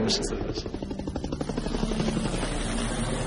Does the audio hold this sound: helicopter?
yes